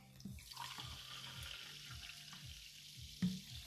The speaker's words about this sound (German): Ich habe ja noch ein Glas Wasser stehen. Das ist auch ganz normales Leitungswasser. Das trinke ich nochmal ganz kurz aus. Das ist easy leer. So. Und da fülle ich jetzt einfach mal das Kohlensäurewasser hier ein.